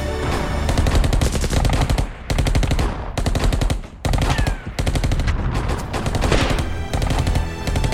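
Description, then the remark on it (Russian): Dense, continuous machine gun and rifle fire in a battle, German soldiers firing automatic weapons as defenders shoot rifles, rapid bursts overlapping with sharp single shots, loud, with only brief gaps between volleys. “Когда приблизились, все стихины начали стрелять, а немцы косить из автоматов.”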